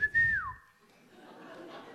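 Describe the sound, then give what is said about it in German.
A short, clear whistle holds one pitch for a moment, then slides downward and fades, over a brief low rumble and faint background hiss. “hey, da fängt es an zu pfeifen.”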